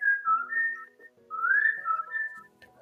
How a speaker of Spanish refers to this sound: yo tengo dolor de cabeza y él sigue silbando.